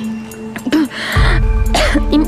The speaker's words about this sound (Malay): …, kau okey ke Aku okey. Ya Allah, …, kau batuk berdarah ni.